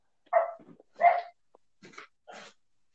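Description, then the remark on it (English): A dog barks two loud, sharp times about a second apart, then lets out two softer, shorter barks, with no talking over it. “Who's dog?”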